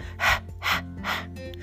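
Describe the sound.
A voice breathes out the Arabic letter ha three times, each a sharp, airy exhale like fogging glasses before wiping them, sharper than the English H, evenly spaced with brief pauses and no other speech.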